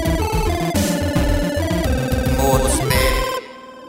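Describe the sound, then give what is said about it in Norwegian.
Several telephones ring at once in a loud, dense jumble of overlapping electronic tones, continuous, cutting off abruptly near the end and leaving only a faint tail. “For nå ringer de alle telefoner, og bauger og kone ringer og sånn.”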